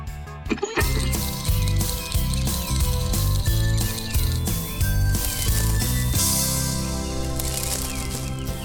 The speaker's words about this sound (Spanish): ¿Escuchas ese revoloteo? No es una abeja, es Camila, con una pregunta para Lucy.